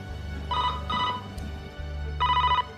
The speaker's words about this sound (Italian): In quel momento squilla il telefono.